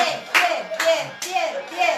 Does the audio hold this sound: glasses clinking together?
no